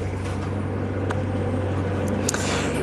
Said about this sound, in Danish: jeg tror dog ikke lige, det er høstmaskinen, men en eller anden form for maskine, der lige passerer på vejen forbi her